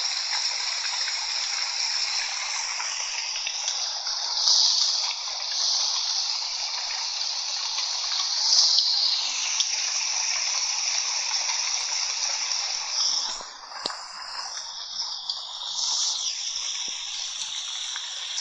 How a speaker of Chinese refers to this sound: 听到这个雨声的时候，可以想到自己的家，或者想到一些南方的一些小屋，屋檐上面有雨水滴落下来，淅淅沥沥的声音很大，雨打芭蕉。